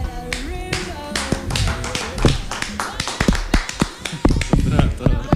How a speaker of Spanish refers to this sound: Ayer fue el día del podcast. Así que un aplauso a nuestro programa uh.